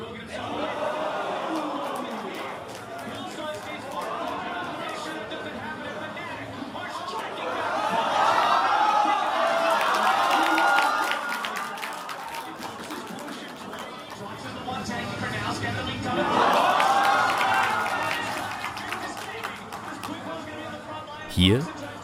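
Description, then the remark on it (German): A large audience of about 400 enthusiastic spectators watching a live broadcast of a League of Legends e-sports final cheers and chatters, the crowd roar swelling loudly twice and then dying back to a steady murmur, with some laughter mixed in. “schauen gerade 400 begeisterte Zuschauer die Live-Übertragung vom Finale.”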